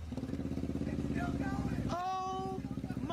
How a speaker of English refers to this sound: So for audio listeners, the engine finally caught on fire. Yeah. The whole thing went up in flames.